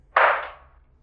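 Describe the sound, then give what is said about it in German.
A single loud, sharp bang of a heavy door slamming shut hits suddenly and then fades over about half a second with no voices. “Nachdem er zwei Schritte gegangen ist, ist ein lauter Knall zu hören.”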